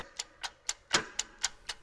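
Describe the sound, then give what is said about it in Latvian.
An old pendulum station clock mechanism from the 1920s or 1930s, wound up and still working, ticks seven crisp, evenly spaced ticks in quick succession, one landing with a slightly heavier clack, with no voices. “Tā viņu uzvelk, tad tas uh, svārsts paceļās uz augšu, līdz augšai, un mehānisms darbojās tas vēl joprojām darbojās.”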